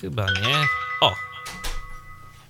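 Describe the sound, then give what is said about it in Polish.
A smart door camera's notification chime, alerting that someone is moving about outside the front door, rings out with bright, sustained electronic tones that linger for over a second, while a man speaks briefly just before it and exclaims as it sounds. “No, to jest dźwięk, który nas powiadamia, że ktoś się pod naszymi drzwiami kręci no.”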